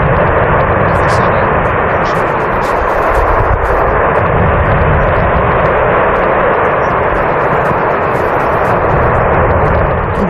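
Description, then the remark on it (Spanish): A deep, continuous rumbling roar from the erupting Cumbre Vieja volcano on La Palma in the Canary Islands fills the whole recording, loud and steady with a dense low-end churn and faint crackling bursts on top, no voices present. “Durante casi tres meses, este fue el ruido de fondo con el que vivieron en La Palma.”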